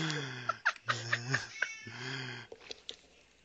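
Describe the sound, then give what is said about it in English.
An agitated cat going berserk yowls in three drawn-out, wavering cries, fairly loud, with sharp clattering and scuffling sounds in between as it thrashes about. “Sorry, the cat is going. The cat is going berserk, and I was trying to help.”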